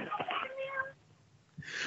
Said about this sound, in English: Was that a cat meowing at the end of that call? I think so. Yeah.